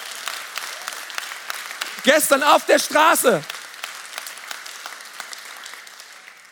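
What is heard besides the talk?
audience applause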